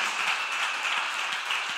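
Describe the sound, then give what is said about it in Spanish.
An audience applauding the Lord: dense, steady clapping from many hands, blending into an even, bright wash of sound that holds at a constant level for about two seconds, with no voices. “¿Cuántos van a ver la gloria de Dios y le dan un aplauso fuerte al Señor?”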